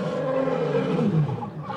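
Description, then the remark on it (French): A lion's deep, rumbling roar fills the moment, loud, one sustained growling bellow that swells and wavers for about two seconds with no talking. “Le vieux lion avait dit ces mots avec autant de force qu'un rugissement.”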